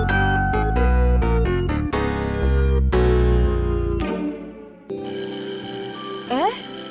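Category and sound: signal or alarm, school bell ringing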